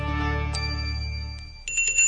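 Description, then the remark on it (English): A hand bell, rung by a woman standing outside the Colorado state capitol at 11 a.m. on December 11th, rings out several times, its bright metallic tone lingering and overlapping between strokes, ending in a quicker flurry of rings. Clear, with no voices. “stood outside her state capitol and rang a bell.”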